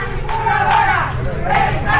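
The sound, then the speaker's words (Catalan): A crowd of protesters shouting together, a loud continuous roar of many raised voices with rising bursts of chanting, no single voice standing out. “Escoltem en aquest cas crits en contra”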